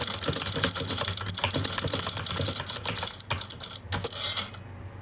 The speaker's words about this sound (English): So um, I'm going to start typing.